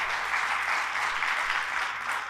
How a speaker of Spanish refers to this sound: Denle fuerte aplauso a nuestro Dios.